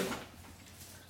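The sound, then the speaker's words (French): A door is opened for the dog Satanas, with a short, soft clatter at the start, followed by a low steady hum. No one speaks. “Je vais lui ouvrir, ne bougez pas, comme ça nous allons être tranquilles.”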